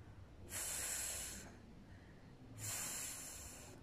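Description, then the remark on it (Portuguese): A voice produces a soft, breathy voiceless English 'th' fricative, as in 'thanks', with the tongue between the teeth, twice, each hiss lasting about a second with a pause between, fairly quiet, with no other talking. “nesse caso específico, você tem que colocar a língua entre os dentes.”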